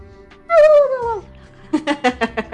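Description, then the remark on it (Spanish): Two pitbull dogs guarding the house bark in the background: a drawn-out, falling whine-like yelp, then a quick burst of about five sharp barks in a steady rhythm. Nobody speaks. “Oigan, lo siento, es que mis perritos de fondo de repente hacen mucho ruido porque se creen mucho su papel de, guardianes de la casa.”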